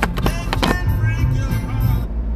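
Steady low road rumble from inside a moving car, with a few sharp knocks and rattles early on, continuous and fairly loud throughout.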